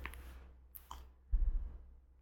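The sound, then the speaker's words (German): Small metallic clicks and light tapping from fiddling with a paperclip and pen, quiet, with a soft scraping rustle toward the end. “Ich spiele mit einer Büroklammer und einem Stift.”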